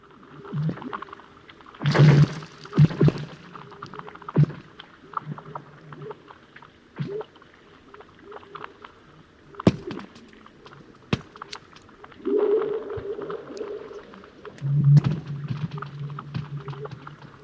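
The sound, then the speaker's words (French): Eerie sounds of frozen lake ice: sharp cracks and pings alternate with low, resonant, whale-like tones that swell and fade, with no voices, fairly loud. “Alors il y a beaucoup effectivement de sons de bruit, mais il y a aussi beaucoup les sons de la nature, ceux que l'on entend lorsque vraiment on tend l'oreille, euh, comme ceux par exemple d'un lac de glace.”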